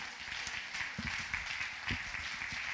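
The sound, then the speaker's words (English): An audience at an evening church service applauds steadily to welcome a newly hired Zanesville Police Department officer to the pulpit to preach, many hands clapping together in a dense, continuous patter with a few louder claps standing out, filling the whole stretch without any talk. “Would you welcome him to the pulpit as he comes to preach the word tonight?”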